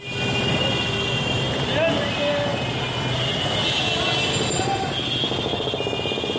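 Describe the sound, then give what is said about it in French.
A dense, constant roar of busy street traffic in India with engines and crowd chatter, brief horn toots rising over the din now and then, loud throughout. “Il y a l'Inde que l'on rêve, avec ses palais somptueux, ses costumes scintillants et ses musiques cristallines, et il y a celle bien réelle de la rue, qui ressemble plutôt à ça.”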